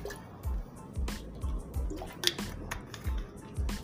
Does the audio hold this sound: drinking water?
yes